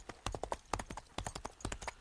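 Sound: horses galloping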